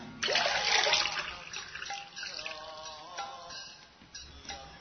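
Drinking water is poured into a glass or bottle: a splashy rush at first, then a steady trickle whose pitch climbs as the vessel fills. No one speaks.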